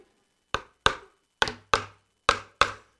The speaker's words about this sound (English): Man, my drum is flat. It's the humidity.